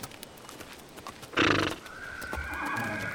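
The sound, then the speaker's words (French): A horse, standing in for a family of unicorns by a stream in the woods, whinnies loudly in a bright, wavering burst, followed by a softer sustained neigh, with faint hoof clip-clops tapping beneath; no one speaks. “Une famille de licornes se promène près du ruisseau qui traverse le boisé.”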